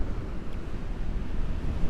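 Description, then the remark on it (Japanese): A steady rush of ocean surf on a beach, a low, continuous roar with gentle swells and some wind buffeting the microphone, with no voices. “時々こうやって海岸から配信してみようかな”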